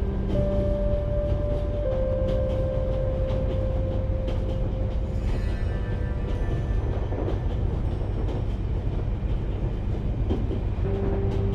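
A train rumbles steadily along the rails on a long-distance journey, a dense low-pitched roar with faint rhythmic clatter and a few sustained tonal hums, continuous and loud throughout with no voices.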